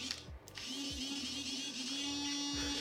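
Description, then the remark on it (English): A device's vibration motor on its fourth vibration setting buzzes steadily and loudly with a harsh rattling hum, pulsing slightly unevenly throughout, with no voices. “Vibrate four.”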